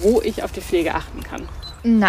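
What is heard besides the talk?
dog whining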